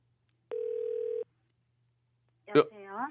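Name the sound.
telephone call connecting tone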